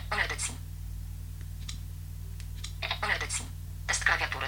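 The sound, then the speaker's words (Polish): Soft, scattered taps and clicks of someone typing a keyboard test note on a phone's virtual touchscreen keyboard, with the phone held in portrait orientation. The taps are irregularly spaced, between a few brief louder bursts of sound over a steady low hum. “Tutaj za dużo nam się wcisnęło tychże.”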